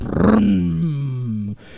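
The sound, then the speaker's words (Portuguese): A man's voice imitates the Batmobile's engine starting, as in a Batman film: one loud, growling rumble lasting about a second and a half, its pitch sliding steadily downward before it cuts off abruptly. “O Batmóvel, velho, o bagulho liga o motor, ele faz.”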